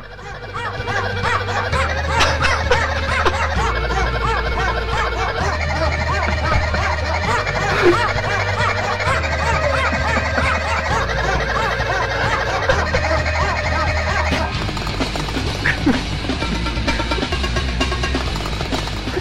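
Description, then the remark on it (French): A loud cover of a metal song performed with animal noises, including a parrot, gobbling and squawking calls standing in for the vocals over a heavy, pulsing bass line, with pots clattering behind, continuous throughout. “Parce que maintenant, ça va être carrément l'arche de Noé qui va se ramener au complet pour poser son flot.”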